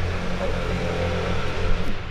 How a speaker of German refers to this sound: Okay, sorry, gerade ein Motorboot durchgefahren.